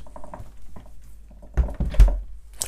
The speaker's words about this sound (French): J'ouvre mon frigo parce qu'il est en train de faire un bruit bizarre en même temps. Stop.